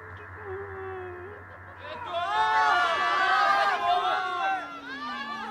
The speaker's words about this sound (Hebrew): הקהל משתולל, אבל זה לא פלא.